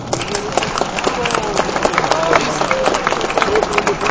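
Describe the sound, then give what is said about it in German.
A crowd applauds steadily for a jury member coming onto the stage at the Sondermann prize event for comic art, with dense, rapid clapping that fills the whole stretch at an even level. Faint voices and scattered cheers blend into the noise. “erstmal einen kräftigen Applaus.”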